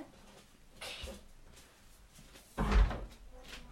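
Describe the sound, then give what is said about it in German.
A door is closed, landing with a solid, fairly loud thud after a softer rustle of movement a moment earlier; no one speaks. “Und die Türe zumachen.”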